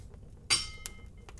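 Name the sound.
glasses clinking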